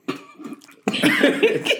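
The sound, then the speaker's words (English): Someone coughs and splutters as if choking on a drink: a short harsh cough, a brief pause, then a louder, rough, sustained burst of wet sputtering coughs with no talking. “That's why I try not to sip because it was gonna come out.”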